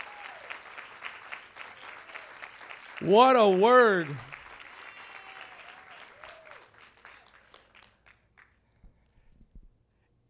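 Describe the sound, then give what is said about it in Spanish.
An audience applauds during a Spanish-language Bible sermon, dense, steady applause that gradually thins and fades out, with a loud, ringing voice calling out partway through and some talk over the clapping. “Alguien le da un aplauso.”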